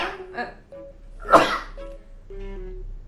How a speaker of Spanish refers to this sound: Salud. Salud. Perdónenme. Sigue. Perdón. Estornudé, lo escuchas.